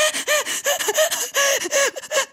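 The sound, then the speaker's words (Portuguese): A voice mimics loud, exaggerated sobbing: a rapid series of gasping, wailing catches, about a dozen in a row, intense, with no actual words. “Opá, tu chora, tu encosta-te à parede, tu vai desfalecendo pela parede abaixo, assim, até encostar a tua cabeça no joelho e tu chora muito alto, assim.”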